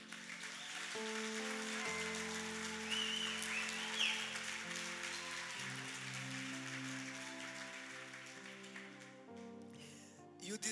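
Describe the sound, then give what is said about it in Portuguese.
An audience applauds with steady, dense clapping over sustained keyboard chords that shift a few times, the crowd noise holding an even loudness for about ten seconds. “Uma salva de palmas para esse homem.”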